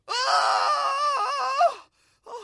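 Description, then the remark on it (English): A man lets out a single loud, sustained scream lasting nearly two seconds, wavering slightly before breaking off, followed by a brief silence and a short vocal catch. “When the young king heard this, he screamed”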